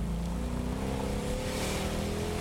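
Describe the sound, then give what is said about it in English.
A Ford Mustang engine revs up loudly and steadily at Varsity Ford on National Mustang Day, its deep growl climbing in pitch as the driver presses the accelerator, with no voices over it. “Now, go ahead, pedal in.”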